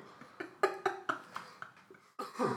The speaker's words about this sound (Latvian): Jā, un es arī esmu mazliet apslims, tāpēc sorry par klepu.